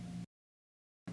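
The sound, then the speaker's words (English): A mini fridge hums in short bursts, a steady low drone with a strong tonal buzz, cutting out into silence for most of a second before resuming. “If you can hear that annoying sound in the background, that is my mini fridge.”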